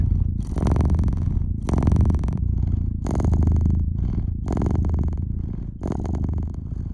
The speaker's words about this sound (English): Purring cat is for me the most comforting thing. It might be because it provides a feeling of a certain safety. Because a cat wouldn't purr if there was any danger around.